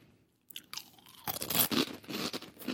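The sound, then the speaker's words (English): Loud crunching of dry, crisp, salty Chex Mix snack pieces being chewed, with dense irregular bursts of cracking and grinding after a brief quiet start, no voices present. “They're very crunchy. Very crunchy, very salty.”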